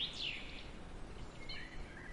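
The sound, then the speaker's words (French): Birds chirp and sing in bright, high bursts near a well over a steady low ambient hum, a few short calls rising and falling, with no talking. “D'un coup, un très beau chant d'oiseaux vous ramène là où vous vous trouvez, près du puits.”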